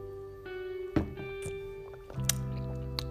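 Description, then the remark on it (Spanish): Someone drinking water: a few soft wet sips and sloshes with light knocks from the container, spaced out over a few seconds against a steady low background hum. “Voy a tomar agua porque tengo sed.”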